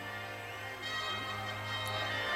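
Big Ben's deep clock-tower bell chimes, its long ringing tones sustained and overlapping against a steady musical backdrop, moderately loud and continuous throughout.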